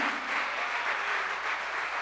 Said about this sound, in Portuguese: Vamos aplaudir a Jesus.